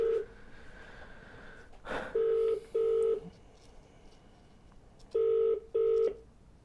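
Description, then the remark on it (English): Several short, loud beeping tones from a phone keypad being dialed to place a call, pressed in quick pairs with brief pauses between, clear with no talking. “Um, but yes, I want to call him now. So let's try my luck and see if we can have a first phone call in this podcast.”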